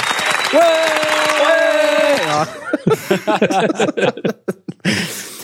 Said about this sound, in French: Et c'est la quarantième. Eh, les gars. C'est eh ouais. la 40e. Eh, eh, on s'applaudit.